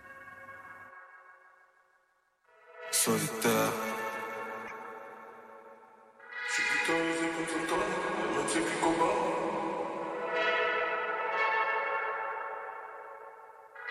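A rap song intro plays: a low droning tone, then a bright, bell-like synth hit with echo, followed by a fuller, sustained wash of layered synth chords that stays loud to the end.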